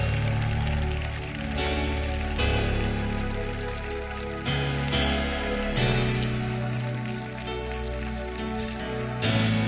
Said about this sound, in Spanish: Dale un fuerte, fuerte aplauso a Jesús. Ahí en la sala 7, dale un fuerte, fuerte, fuerte.